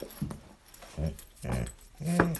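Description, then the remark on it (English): A dog lets out about four short vocalizations, a mix of yelpy barks and a higher whining whimper at the end, spaced irregularly with quiet gaps between them. “Dog intermission.”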